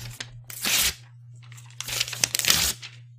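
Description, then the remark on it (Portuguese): Paper is deliberately torn by hand in two bursts, a short rip followed by a longer, ragged tear with crackling, crinkly edges, set against a steady low hum. The tearing demonstrates the Japanese verb yaburu, to tear. “Então, eu estou rasgando porque eu quero, né?”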